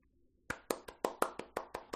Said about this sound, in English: A round of applause with several exclamations of congratulations.